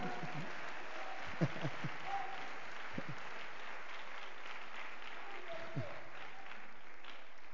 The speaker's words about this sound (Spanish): Damos un aplauso de alabanza para el Dios Todopoderoso